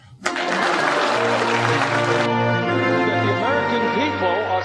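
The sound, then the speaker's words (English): An audience bursts into applause, a sudden loud, dense patter of clapping lasting about two seconds, then fading into crowd voices and a speaking voice with sweeping pitch. “Please clap.”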